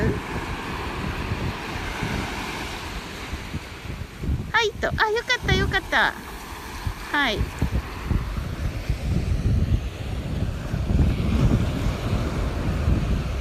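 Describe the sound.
Steady surf rolls and washes onshore close by, with gusty wind buffeting the microphone throughout; brief seabird-like calls chirp midway, and a few short spoken remarks occur over the noise.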